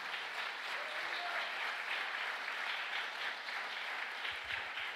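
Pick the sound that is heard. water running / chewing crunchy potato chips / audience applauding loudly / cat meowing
audience applauding loudly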